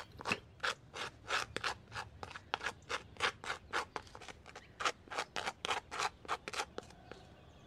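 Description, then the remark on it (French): A knife scrapes butter across a crispy rusk in quick, rhythmic rasping strokes, around twenty of them, dry-sounding, with no voices. “Parlons de ce bruit très agaçant pour ceux qui entourent le beurreur de biscotte.”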